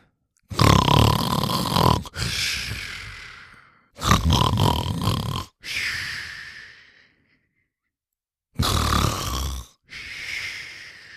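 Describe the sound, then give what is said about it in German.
Three loud, rough snores from a large, overweight man lying on a mattress right next to the listener, rattling out at a slow, regular pace, each trailing into a softer, breathy exhale before a short pause. No talking. “Ah ja, dieses tolle Schnarchen, ah, das werde ich niemals vergessen.”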